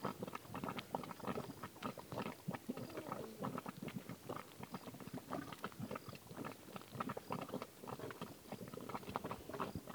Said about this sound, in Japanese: 泥の沼の底から、うん、ね本当に泡がボコボコとボコボコボコボコいってましたね。これがポッケでボッケ。ポッカはき立つポッカは煮立つこと、うん、煮え立つこと、う煮え立つという意味ですね